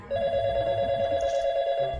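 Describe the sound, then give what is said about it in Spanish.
A telephone rings continuously for about two seconds, a steady, bright electronic tone with buzzy overtones, fairly loud over a low background rumble, with no voices. “Comenzó a preocuparse pero la gota que derramó el vaso fue otra llamada.”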